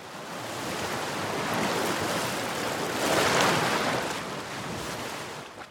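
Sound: ocean waves breaking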